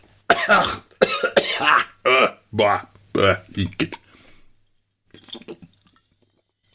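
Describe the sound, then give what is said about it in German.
A voice imitates hawking and spitting: a rapid series of harsh, phlegmy throat bursts, then a pause and a few faint wet, squishy sounds at the end. “aus Demonstrationsgründen, diese Geräusche. So, ähm, und ich stelle mir jetzt vor, wie da in den Bäumen, in den Wipfeln deutsche Hip-Hopper und Gangster-Rapper sitzen und sich gegenseitig anbrotzen”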